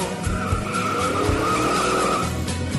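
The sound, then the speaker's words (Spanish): A car engine revs hard as the driver accelerates, dodging other cars, tires squealing in a sustained, high-pitched, loud screech, with a steady roar of motor and road noise underneath for the whole stretch. “Mientras ella acelerando”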